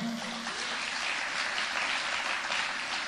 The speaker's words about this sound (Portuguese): Aleluia! Você pode aplaudir ao Senhor?